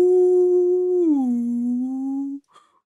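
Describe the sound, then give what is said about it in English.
A person imitates whale song with a long, sustained low hum that glides downward midway and holds steady, ending abruptly after about two and a half seconds, fairly loud. “Two whales are at a bar together, and one whale says to the other, Ooh.”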